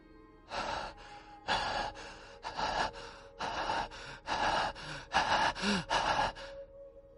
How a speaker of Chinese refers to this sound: 勇者无敌的呼吸声变得粗壮起来。他看了一下游戏菜单，这自己明明还有整整一千左右的体能值。而且并不是在进行奔跑，只是快步走而已，不应该这样才对。他停下脚步，两只手支撑在膝盖上，将气喘匀了，咽了口唾沫。